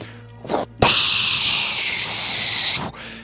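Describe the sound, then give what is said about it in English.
A toilet flushes loudly, a brief click and whoosh giving way to about two seconds of steady rushing water that cuts off abruptly, over a faint low hum. “As you are flushed, you and her, out of that room.”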